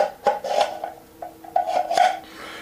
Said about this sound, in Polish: Jak słychać, y, element wchodzi jeden w drugi, przy czym prowadnice, które są w tym kubeczku, pozwalają nam tak jak trzeba wpasować jeden element w drugi bez obawy o to, że coś będzie nie tak.